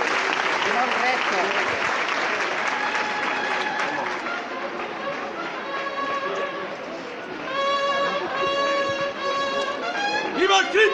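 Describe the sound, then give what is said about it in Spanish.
A street crowd at a religious procession in Jaén applauds steadily as the Cristo comes out of the church into the streets, a dense, continuous patter of clapping with murmuring voices mixed in and a few brighter tonal sounds rising toward the end. “La cruz está justo bajo este dintel eh, de la iglesia y bueno, ya podéis ver cómo los primeros aplausos pues no, no se hacen esperar hasta que se toque la marcha real.”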